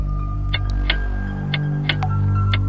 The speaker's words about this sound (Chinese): 墙上的钟声